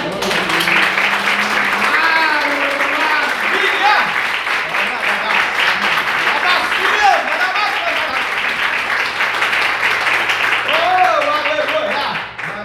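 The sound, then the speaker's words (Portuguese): Steady, dense applause from a church audience, clapping in praise of the Lord after a sermon, fills the whole stretch, a loud wash of clapping with voices calling and cheering mixed in, easing off only at the very end. “A palmas que adoram o Senhor.”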